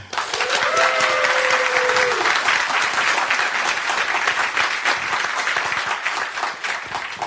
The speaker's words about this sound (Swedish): Gott folk, ge en varm applåd